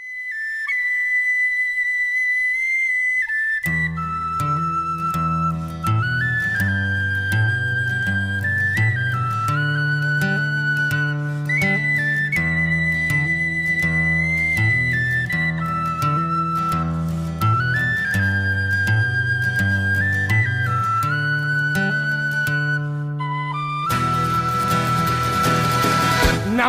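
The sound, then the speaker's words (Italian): A live band performance of a song at a concert in Bologna: a lone high melody opens briefly before bass and full accompaniment join, playing steadily and loudly, with a brighter, noisier swell near the end. “Hai detto es- es- esattamente quello che è successo quel giorno a Bologna e ti dico secondo me la versione più bella. Ascoltiamola”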